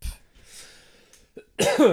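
human body sound, a short cough

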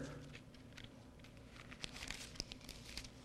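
household object, bible pages turning

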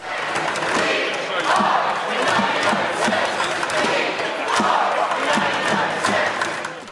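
crowd, protest crowd chanting slogan

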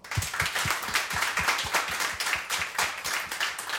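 crowd, applause

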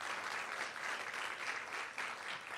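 crowd, applause

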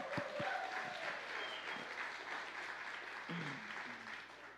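crowd, polite clapping

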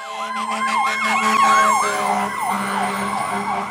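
vehicle, ambulance siren

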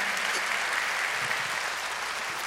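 crowd, audience clapping hands

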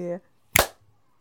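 human body sound, hand clap

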